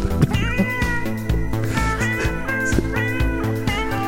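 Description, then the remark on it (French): An upbeat jazz tune with steady bass and rhythmic chords, while cat-like meows rise over the music repeatedly, blending in as part of the playful arrangement. “C'est le jazz des chats.”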